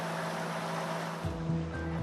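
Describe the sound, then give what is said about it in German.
The fan of a solar-powered water-from-air absorber unit (Aquahara system) is switched on, sucking air into the box. It runs with a steady, broad rush of air and a constant low hum. Partway through, a deeper rumbling drone joins in. No one speaks. “Und nun wird noch der Ventilator der Absorbereinheit eingeschaltet.”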